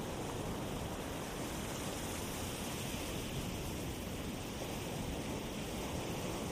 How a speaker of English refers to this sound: For tonight's meditation, we'll be listening to the sound of the Pacific Ocean that I recorded out at the coast last year.